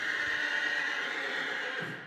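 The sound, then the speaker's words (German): A horse taking part in a theatre production lets out a single drawn-out whinny, steady and fairly loud, with no voices over it, fading slightly at the very end. “Pferde sind ja eigentlich im Großen und Ganzen relativ entspannt einfach.”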